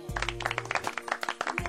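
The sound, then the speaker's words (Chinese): A short burst of applause, with quick, uneven claps pattering steadily for under two seconds over a low sustained tone that drops out midway and returns at the end. “哎呀，赶紧鼓掌。”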